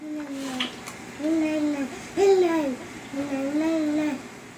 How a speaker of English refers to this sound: You can also hear my daughter babbling away like it's just any other morning.